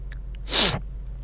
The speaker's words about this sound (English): Sorry, this is the other thing that I wasn't planning. I, I, I, had these two huge sneezes right at the beginning of the podcast, and now there's just drainage going on.